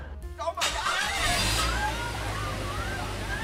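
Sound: car arriving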